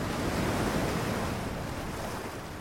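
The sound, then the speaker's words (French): Ocean surf rushes steadily onto a beach, a dense continuous wash of breaking waves that eases slightly toward the end, with a hint of wind and no voices. “Je mêle le son des vagues aux souvenirs vagues de grand-maman.”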